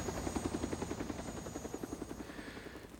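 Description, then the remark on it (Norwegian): A helicopter standing in a small open clearing, waiting for an injured person carried there on a stretcher. Its rotor thumps in a fast, steady rhythm, with a continuous engine whine layered underneath. The sound is fairly loud and stays even throughout with no voices. “Bort til en, en å, liten åpen plass hvor det sto et helikopter.”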